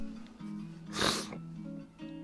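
One loud, wet sniffle of a runny nose caused by hay fever, a short breathy rush of air, set against a steady low hum with no one talking.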